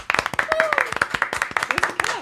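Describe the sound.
A small group claps quickly and steadily for a couple of seconds for their assistant to the management, the sharp claps overlapping, with a brief cheer and some voices mixed in underneath.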